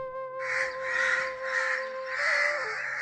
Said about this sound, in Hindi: तभी दो कौवे काव काव करते हुए वहां आ गए सोनू ने गिलहरी को पानी पिलाकर गोद में उठाए रखा कौवे थोड़ी देर वहीं शोर करते रहे